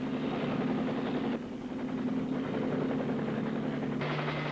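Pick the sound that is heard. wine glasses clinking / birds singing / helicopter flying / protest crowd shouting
helicopter flying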